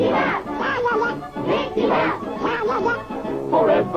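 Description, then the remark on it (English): A catchy Disney TV show theme tune is sung in a squawky, duck-like voice. Steady rhythmic phrases repeat at a lively pace, loud, with no clear words. “One of the most iconic shows in Disney history had a catchy theme song that you might remember.”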